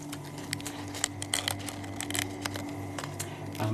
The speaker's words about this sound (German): In Dänemark sind aus den Quallen nach zwei Tagen in Alkohol und im Trockner Chips geworden. Man hört, dass sie knusprig sind.